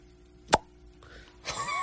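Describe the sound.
A voice imitates a bottle cap popping open: one sharp, close pop, then after a short pause a breathy, fizzing hiss that trails off, with no talking.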